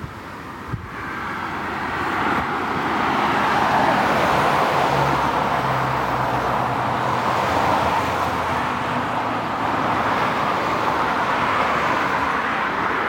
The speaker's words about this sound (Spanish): No es para tanto, ¿no? Parece que van todos los coches en, cuarta. ahora mismo ya. Van con la marcha floja.